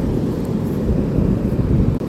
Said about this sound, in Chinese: 先来听一段，嗯，白噪音，应该算吗？算吗？算白噪音吗？海浪的白噪音。